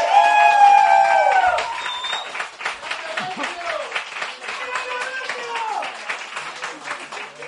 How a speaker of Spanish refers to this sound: Chicos, un aplauso para